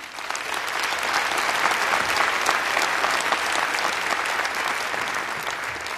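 An audience applauds steadily the proposal of free quality education for every Sierra Leonean child, a dense crackle of many hands clapping at an even loudness throughout, with no voices standing out.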